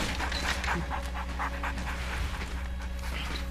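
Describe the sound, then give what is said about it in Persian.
A dog pants in quick, steady breaths as it comes forward, a rhythmic series of airy huffs over a low, constant background hum, with no voices. “یه سگ داره رامینو نگاه میکنه میاد جلو”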